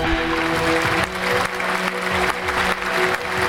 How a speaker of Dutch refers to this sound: Eh, eh, ja, en we kunnen blijven klappen, want aan de andere kant van de lijn